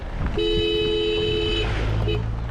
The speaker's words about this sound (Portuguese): O motorista buzina, não por impaciência, mas por precaução. É o único modo de quem vem no sentido contrário saber que há outro carro passando.